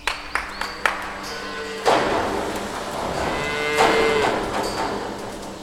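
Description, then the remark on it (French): Cows being brought up into the milking parlour of an agricultural school at milking time: a few sharp metallic clanks, then a steady shuffle and rumble of animals moving, with a low moo rising near the middle. No one speaks. “On vient de faire monter les vaches dans la salle de traite.”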